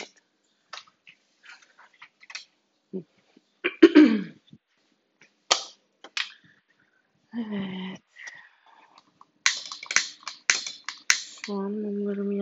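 Repeated sharp clicks and scrapes of a lighter being struck without catching while trying to light candles in a kitchen, coming in irregular bursts, with a couple of short hummed vocal sounds between them.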